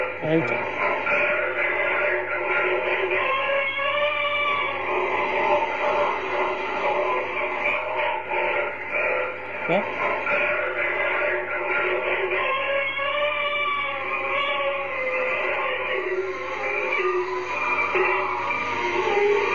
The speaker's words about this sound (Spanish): les voy a poner un, un minutito, unos segunditos de, la psicofonía